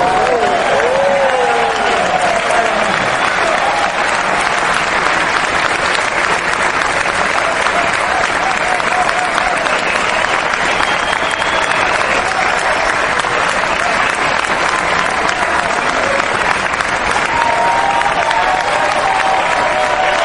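A steady wash of audience applause for a person being greeted, dense and loud, continuing without a break for about twenty seconds, with faint voices and whoops rising briefly through the clapping.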